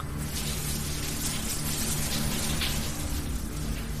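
Hot shower water runs steadily throughout, a dense, even hiss of spray with a faint low hum underneath, unbroken, with no one speaking.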